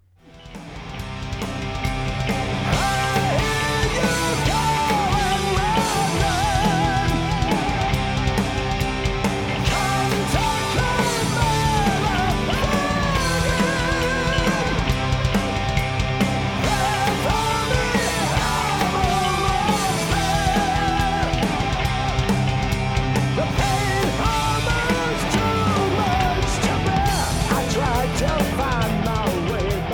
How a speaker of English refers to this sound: So uh, yeah, I just I love the echo on his voice and just the way, you know, the way that just rings out. It's, it's so cool sounding.